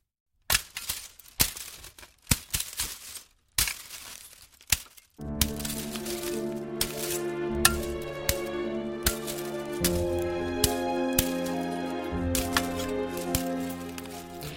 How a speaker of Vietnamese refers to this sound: Dù không nhìn thấy gì, tôi vẫn nghe tiếng cành cây bị chặt gãy răng rắc. Tiếng động vang rõ trong đêm khiến tôi sợ dựng tóc gáy. Cha làm nhanh thoang thoát như thể đang cố tình đánh thức vùng rừng Sora đang say ngủ.